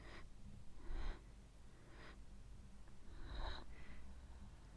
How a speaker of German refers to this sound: Keine Geräusche aus der Nachbarwohnung nur unser Atmen. Vom Treppensteigen.